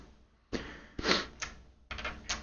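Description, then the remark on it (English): Four fate dice are rolled in a tabletop role-playing game, clattering across a hard table in quick bursts of sharp, clicky knocks, some single and some clustered, moderately loud with no talking. “Dice are going in the corner.”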